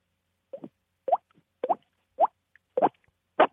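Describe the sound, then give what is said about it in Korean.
A voice imitates water drops with the mouth: six crisp plopping sounds, evenly spaced about half a second apart, each a quick upward-bending pop, clear with no talking. “이거 진짜 물방 울 소리잖아요. 아니에요. 입으로 낸 소리예요.”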